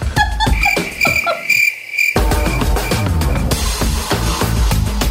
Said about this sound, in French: Bruit de criquet à rajouter ici.